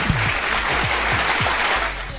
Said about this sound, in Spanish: Así que aplauso.